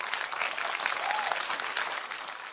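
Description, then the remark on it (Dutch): An audience claps steadily, a dense, even wash of many hands with no pauses, fairly strong throughout, and a faint voice briefly audible under it. “als je klapt, moet je harder klappen.”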